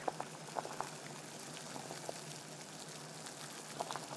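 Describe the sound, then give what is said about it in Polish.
Salted water boils steadily in a pot for cooking pasta, a dense bubbling hiss with scattered louder pops and plops rising through it, continuous with no voices. “Po wybraniu rodzaju makaronu przystępujemy do jego gotowania. Oczywiście we wrzącej osolonej wodzie ważne są tutaj proporcje: maksymalnie 100 g makaronu na litr wody.”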